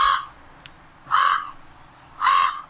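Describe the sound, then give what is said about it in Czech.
Three loud, harsh croaking calls from a common raven, evenly spaced about a second apart, each a short rasping burst with quiet gaps between and no voices. “Takže tohle je krkavec.”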